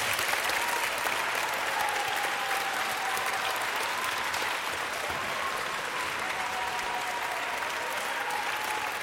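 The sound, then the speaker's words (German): Sustained, dense applause from a large audience for the Münchner Rundfunkorchester (Munich Radio Orchestra), a steady wash of clapping that stays loud and even throughout without any voices rising above it. “Und das größte Dankeschön ist natürlich Applaus für das Münchner Rundfunkorchester.”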